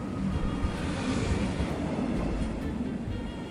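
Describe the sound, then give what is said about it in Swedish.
A train rumbles steadily along the rails as it rolls into a station, a dense, continuous low roar with some hissing on top, moderately loud, with no voices over it. “En timme efter att tåget rullat in träffar Frank en kille som är lika gammal som han själv.”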